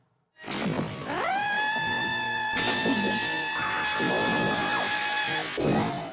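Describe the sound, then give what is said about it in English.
A woman's scream, pitched up, rises quickly into one long, loud, piercing shriek held for about five seconds, with harsh noisy bursts near the start and end and no talking. “So this is it pitched up. That's that's her just screaming regular.”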